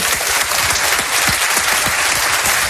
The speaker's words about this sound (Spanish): Me gustaría que el público aquí asistente enviara un aplauso a los oyentes de esas tres emisoras que suban 8 millones de oyentes. Un aplauso.